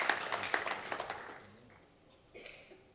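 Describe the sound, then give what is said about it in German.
A crowd at a church sermon applauds with a quick burst of scattered claps that fades away within a second or two, leaving a soft, quiet stretch with a faint rustle near the end. “Hey, gebt mir dem mal einen Applaus.”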